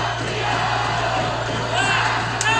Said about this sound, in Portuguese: Já escuta o grito de campeão.